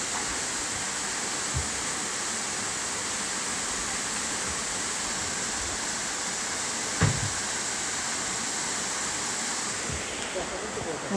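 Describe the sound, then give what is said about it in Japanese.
A steady, dense rush of falling water roars continuously without pause, full, from a waterfall by a river outdoors on Mount Takao, with a faint soft thump partway through. “今日の ASMR この川の音がどれだけ入ってるかそっち滝ですかあやった滝の音です音取れてるかな”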